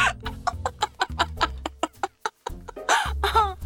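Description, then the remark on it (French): A hen clucks in a quick, uneven series of short clucks, ending in a louder, drawn-out squawking cackle. No one speaks. “Ces courtisanes qui vivent de leur charme ont d'abord été surnommées cocottes durant le Second Empire car leur rire exagéré très bruyant ressemblait au cri d'une poule.”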